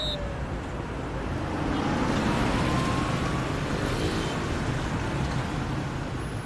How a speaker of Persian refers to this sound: آره از شرکت اومدم بیرون تو راهم ترافیک خیلی زیاده